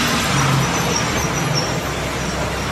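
Steady, dense vehicle rumble at a busy bus terminal, with bus engines idling and a low hum persisting throughout, plus a faint hiss that may be air brakes.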